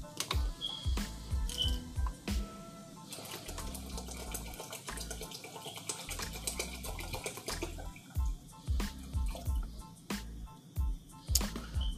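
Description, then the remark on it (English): Boiled water for tea pours steadily for several seconds into a 16-ounce cup, with gurgling splashes and clinks. No one speaks. “I had a little 16 ounces, pour right up in there.”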